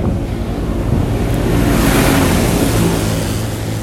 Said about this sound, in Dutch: Jemig. Het is altijd zo lomp. Die trekkers, weet je wel, allemaal modder eraan.